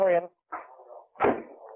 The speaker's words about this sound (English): He's kicking the door.